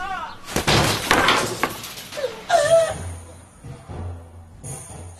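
A house door is forced open with a loud crash, a burst of splintering and breaking, then a second heavy impact, before settling into a low rumble with faint voices.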